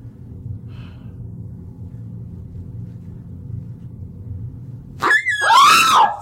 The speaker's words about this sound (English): it's a dog toy Chill. It at scared me. How did that noise even come out of you? I don't know.